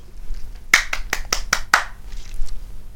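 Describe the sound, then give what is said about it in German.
A quick run of about six evenly spaced, crisp hand claps, lasting around a second before fading into faint background hum; a lone, brief round of applause marking the naming of the King of the North Division. “Applaus.”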